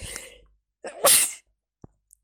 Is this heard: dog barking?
no